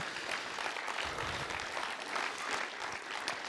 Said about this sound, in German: ich könnte dir gerne Applaus geben.